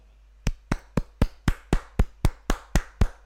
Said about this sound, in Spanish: te aplaudo, pero tú no me aplaudes